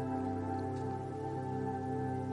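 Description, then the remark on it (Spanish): Steady rain falls continuously, a dense patter that stays even throughout, mixed with a low sustained tonal hum in the background and no voices. “La lluvia era tan rebelde aquel día como lo es hoy, en este preciso instante.”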